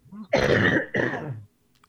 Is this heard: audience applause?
no